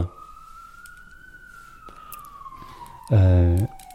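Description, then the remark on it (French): A police car siren wails steadily outside, its pitch slowly rising then sliding down, with a short loud horn-like blast near the end. “je crois que les flics sont en train de redébarquer chez toi”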